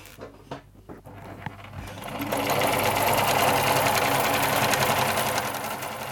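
A sewing machine used to sew Vestfold bunads (Norwegian folk costumes) in Ramnes, Vestfold, Norway, starts with a few scattered clicks, then settles into a steady, fast, loud mechanical whirring that runs continuously, with no voices.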